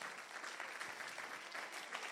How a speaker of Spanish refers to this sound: Y la iglesia dice, dale un aplauso fuerte a Jesús.